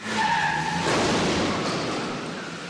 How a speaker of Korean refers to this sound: 편지를 읽은 유진은 그제야 준상이었음을 알게 되지만 공항으로 향하던 준상은 또다시 교통사고를 당하게 됩니다.